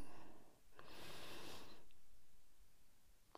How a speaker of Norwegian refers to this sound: Skal vi avslutte dagen sånn som vi pleier? Med å puste litt. Da begynner vi med å puste inn.